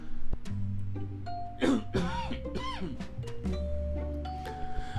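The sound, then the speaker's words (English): A short allergy cough with some throat clearing, a few rough bursts near the middle, set against a steady background of sustained electronic tones. “excuse me, allergy cough.”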